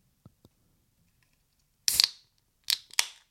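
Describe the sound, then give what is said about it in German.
A small can of beer, bought at a petrol station, being opened: two faint taps, then a sharp crack of the tab with a short fizzing hiss, followed by two quick, bright metallic clicks. No one speaks. “Ein Döschen.”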